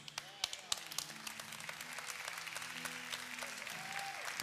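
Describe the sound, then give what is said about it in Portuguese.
A crowd applauds steadily, dense clapping filling the whole stretch with sharp individual claps at the start, while a voice and sustained tones sound underneath. “Se vai aplaudir, aplaude bastante.”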